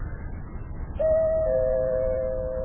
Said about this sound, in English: Oh, my goodness. We no sooner get in the house and the doorbell rings. I'll get it.